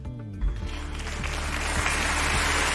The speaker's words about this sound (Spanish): Aplausos para nuestro director de informativos y aplausos para un hombre que, que vuelve a caminar, que vuelve a pisar las calles.